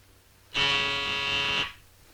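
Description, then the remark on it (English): A doorbell rings with one steady electric buzz lasting about a second, loud, with a harsh, even tone that cuts off cleanly into quiet. “The last time we heard that doorbell was when Goodfellow first showed up.”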